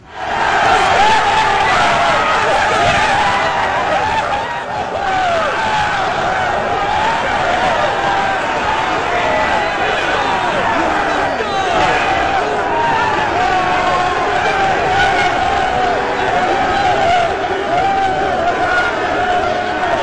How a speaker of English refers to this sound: So once again, that's not the stadium. That's the locker room after the win. So you could tell everybody was excited. Yeah, kind of um, subdued though.